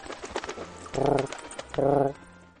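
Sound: pigeons cooing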